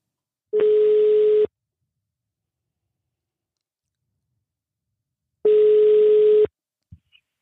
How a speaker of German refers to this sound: Und da werde ich jetzt mal die Nummer ins Telefon tippen und wir werden Sie gleich per Telefon zu uns schalten.